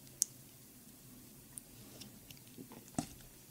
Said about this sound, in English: Hold on, let me sip my water.